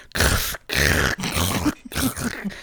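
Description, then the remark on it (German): A voice imitates loud, crunchy chewing of cucumber, producing four rough, wet bursts in quick succession with brief gaps between them, mimicking a man eating cucumber nonstop. “und der hat einfach unaufhörlich Gurke gegessen.”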